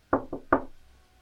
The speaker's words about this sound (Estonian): kõnnib öö, äh, ukse juurde, koputab äh,. esialgu vaikus. koputan uuesti